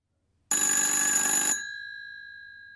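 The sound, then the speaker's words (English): A single loud ring of an old-fashioned telephone bell, rattling for about a second before its metallic tone lingers and slowly fades out. “Everyone hears a phone ringing.”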